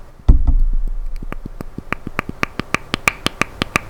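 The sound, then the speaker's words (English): A small plastic freshness button on top of a bottle cap is clicked repeatedly as the bottle is opened and closed, a quick series of sharp little clicks that start sparse and speed into a steady rhythm, after an opening thump. “no, that's the uh, that's the little button on the top of the bottle.”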